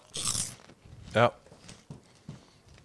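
Crisp crunching of chips being bitten, a loud burst followed by a second, shorter crunch, with softer chewing and mouth sounds in between.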